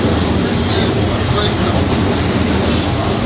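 A 201 series electric train on a Chuo Rapid service from Tokyo to Takao, heading for Ochanomizu: a loud, steady rumble dense in the low end, with broad hiss spread above it and no breaks for the whole stretch.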